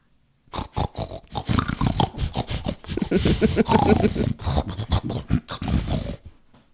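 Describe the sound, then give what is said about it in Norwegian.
A person imitates a pig, making a steady run of rough, throaty grunts and snuffling snorts for several seconds, loud. “Du har blitt en gris. Nesten grisen.”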